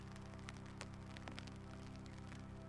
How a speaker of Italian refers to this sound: No, ma piove veramente.